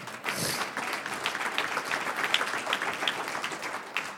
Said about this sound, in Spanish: Un aplauso al Señor.